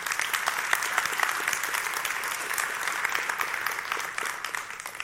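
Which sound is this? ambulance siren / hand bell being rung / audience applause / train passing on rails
audience applause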